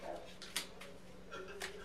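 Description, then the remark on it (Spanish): Several soft, irregular bumps and taps as female dogs bang frantically against a window, a few seconds apart over a quiet low hum. “Las perras están como locas golpeando la ventana.”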